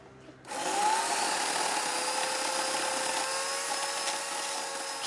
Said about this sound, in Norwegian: Mellom de gamle, smale hendene spinner motorsagen skarpe tenner med 2000 watt.